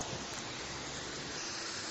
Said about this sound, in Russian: Погода прескверная. Идет такой мерзкий дождик вперемешку со снегом. Куртка уже промокла, и при этом еще дует ветер. А вот, кстати, еще и град пошел.